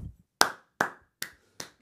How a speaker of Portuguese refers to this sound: Temos que bater palmas para isto.